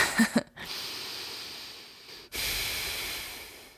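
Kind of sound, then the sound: human body sound, long deep breaths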